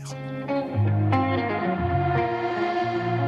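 A song's instrumental opening: layered, sustained chords shift every second or so, washed in echo and effects, with a steady low bass underneath and no singing yet.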